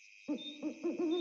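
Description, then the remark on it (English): An owl hoots several times in quick succession, low and mellow, over a steady high-pitched nighttime drone, with short pauses between the calls. “That's the sound of a night sky, protected by an overlapping network of Raytheon missile defense solutions.”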